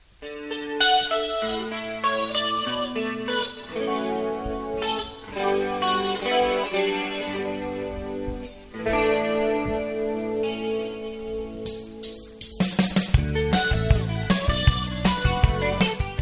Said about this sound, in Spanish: Eh, canción de su álbum … de 1986. Eh, y la canción eh, habla sobre el cantante que desea regresar a su ciudad natal.